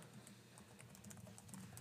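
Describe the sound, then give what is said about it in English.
Rapid keyboard typing as "UFO documents 2021" is typed in, a quick run of light clicking keystrokes, steady and unbroken for a couple of seconds with no one talking. “I just typed in UFO documents 2021.”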